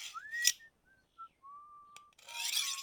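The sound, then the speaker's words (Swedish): A man whistles a cheerful little tune of several sliding notes at moderate volume, framed by brief rasping, scraping noises at the start and a longer rough rubbing sound near the end. “Det verkar som att visslar han någon glad melodi för sig själv?”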